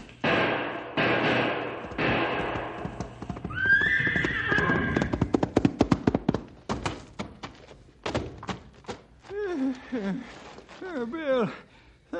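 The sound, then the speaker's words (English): A horse gives a shrill, drawn-out whinny, followed by a fast, loud clatter of hooves and heavy thuds as a bull charges at full speed, then low, wavering bellowing cries. “The wounded man and horse make a desperate effort to protect themselves as the beast turns and charges at full speed.”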